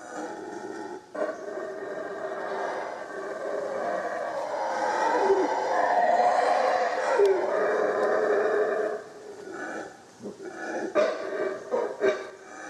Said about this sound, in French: Claire a regardé sur internet, elle a fait Mais non, mais en fait, ce sont des singes hurleurs.